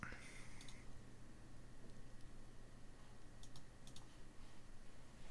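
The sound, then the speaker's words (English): A handful of soft computer mouse and keyboard clicks as someone clicks through a web page about Star Wars characters, scattered irregularly over a low, steady background hum, with brief pauses between the taps. “Hold on, let me try clicking on.”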